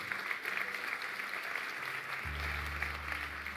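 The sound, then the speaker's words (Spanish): A crowd at a sermon loudly applauds and praises God, clapping steadily for several seconds, the applause dense and sustained, with a low hum or organ-like tone entering partway through beneath the clapping. “¿Alguien puede glorificar el nombre de Dios por esto? Hazlo fuerte.”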